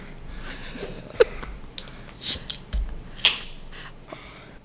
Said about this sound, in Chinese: 你要不要开啤酒？声音给我们做一点音效，这样子。